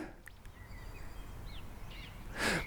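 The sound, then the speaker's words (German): Faint, scattered bird chirps and short whistled calls in the countryside over a low outdoor rumble, ending in a brief burst of hissing noise. “Mit Landluft verbindet man als erstes natürlich das Zwitschern der Vögel und das Zirpen der Grillen.”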